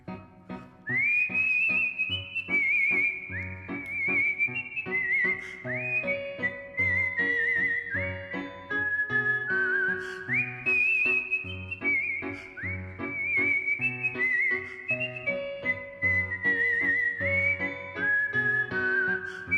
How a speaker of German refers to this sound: Ja, also Kunstpfeifer sind Musiker, die eben statt auf einem Instrument zu spielen oder statt zu singen, pfeifen. pfeifen. Und zwar ah. so gut, dass das eben Leute in einem Konzertsaal anhören und es klingt dann manchmal so bei einem Kunstpfeifer.